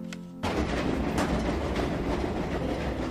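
A train rumbles along the rails at close range, a steady loud roar with clattering wheel noise, kicking in abruptly after a brief quiet hum at the start.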